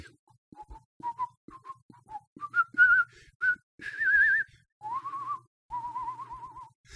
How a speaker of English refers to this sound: I think I'm going to whistle the theme tune just just to sort of have a little you, interlude. Yeah.